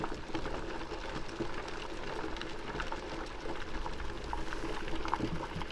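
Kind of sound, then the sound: food or drink, water bubbling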